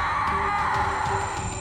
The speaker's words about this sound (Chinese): 他的脸颊贴着的墙壁也开始碎裂，露出了一张人的脸孔啊，张大了嘴巴，在他的耳边发出了鬼哭般的嚎叫。